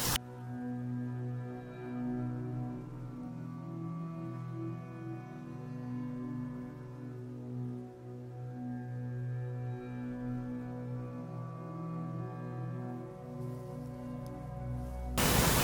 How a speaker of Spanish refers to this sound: Sí, sí, si ese reguilete está diciendo, está haciendo mucho ruido, vamos a ver de quién es la tumba del reguilete.